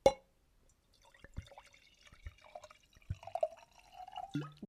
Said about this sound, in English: Sorry, guys. Another trigger warning for that sound. Oh, he's pouring the wine.